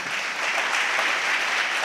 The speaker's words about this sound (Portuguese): Dá um aplauso a ele por isso.